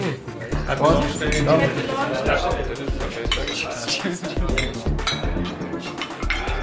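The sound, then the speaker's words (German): Several sharp glass clinks ring out amid a busy, lively background as glasses are touched together in a toast, with people talking over and around the bright taps and saying "Cheers" and "Zum Wohl". “Cheers. Zum Wohl.”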